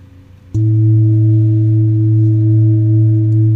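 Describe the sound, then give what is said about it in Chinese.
A small singing bowl of the kind used in sound healing, the second of several bowls demonstrated, is struck once, giving a sharp attack followed by a loud, steady ringing tone with layered pitched overtones that sustains evenly without fading. “好，现在敲的这个波呢，它是一个比较小的波。”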